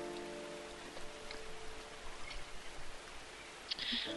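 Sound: rain falling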